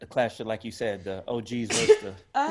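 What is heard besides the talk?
sneeze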